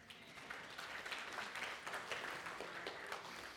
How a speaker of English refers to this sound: Thank you, brother. Y'all give my brother a round of applause.